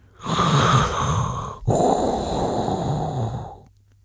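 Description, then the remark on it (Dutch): A loud mechanical respirator breath, Darth Vader's breathing sounding through a hall: one long hissing inhale followed by a raspy, rattling exhale, with a brief pause between. No voices. “In plaats daarvan klinkt de mechanische schorre klank van Darth Vaders ademhaling door de zaal.”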